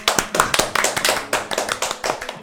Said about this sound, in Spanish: Un aplauso.